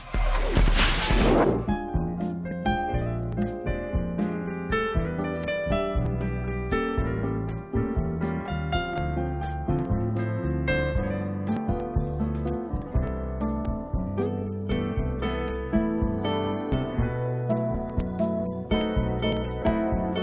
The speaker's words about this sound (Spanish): Bien, hacemos un pequeño corte, un puente musical agradable y regresaremos.